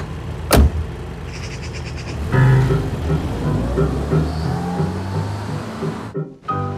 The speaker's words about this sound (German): öffnet die Beifahrertür.